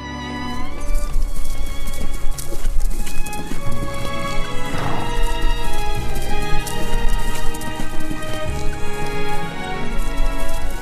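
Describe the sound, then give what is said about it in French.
The hooves of a ridden horse, urged on along a road, clip-clop at a steady, quick trot throughout, fairly loud, layered over sustained tonal music. “Et maintenant, parti dès l'aube par la belle route de Lambèze, il pressait son cheval, pris d'une impatience qui l'étonnait lui-même.”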